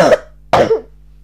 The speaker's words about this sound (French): Par contre, euh, vous allez m'entendre tousser tout au long de l'épisode, mais j'espère que ce sera pas très désagréable. Mais vous savez, moi c'est euh, chill, c'est naturel, c'est vrai, donc prenez-le comme ça.